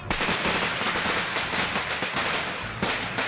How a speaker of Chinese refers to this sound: 你快起来看看吧，你男朋友在楼下放鞭炮呢！